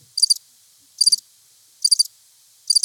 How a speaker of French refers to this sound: C'est parfait. Des criquets.